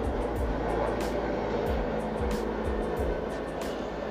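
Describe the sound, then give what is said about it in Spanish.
A helicopter passes overhead, its steady roar filling the scene with a rhythmic thumping from the rotor blades, loud, with no voices. “Eh, está pasando un, helicóptero.”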